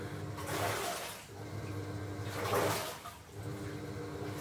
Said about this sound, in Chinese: 然后那天天气特别特别好，然后我就蹲在被太阳晒得暖烘烘的阳台上面，旁边洗衣机呼啦呼啦呼啦地卷动着衣服。